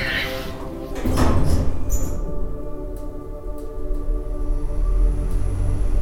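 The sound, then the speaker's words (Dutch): Doors slide shut with a dull thud, followed by a steady low rumble and a few faint clicks, with indistinct voices murmuring in the background. “Sluiten van de deuren.”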